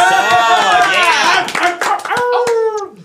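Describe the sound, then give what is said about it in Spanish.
Applause with scattered hand claps mixed with loud cheering and whooping voices, lasting about three seconds before fading out quickly at the end. “¡Aplausos!”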